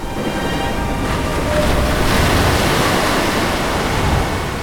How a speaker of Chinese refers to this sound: 刮起的大风把海浪吹得非常的躁动，不停的翻涌。